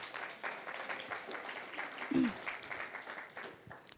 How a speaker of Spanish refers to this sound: gracias a Dios por los pastores de jóvenes, ¿a poco no? Y es un aplauso a ellos.